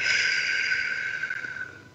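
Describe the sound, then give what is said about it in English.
A slow, steady exhale blown out through pursed lips, like through a straw, during a breathing exercise: an airy hiss that holds for about two seconds and gradually fades as the breath runs out. No one speaks. “Take a deep breath in through your nose, out through your mouth like through a straw.”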